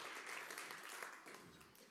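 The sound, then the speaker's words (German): A crowd applauds a band steadily, a dense wash of many hands clapping at once, fairly loud and sustained throughout with no pauses. “Komm, ich gebe der Band und besten Applaus.”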